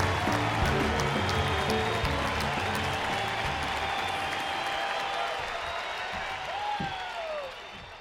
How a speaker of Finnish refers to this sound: Valot sammuvat ja seinälle heijastetaan suuri kuva Kemal Atatürkistä. Yleisö nousee seisomaan, taputtaa käsiään ja huutaa.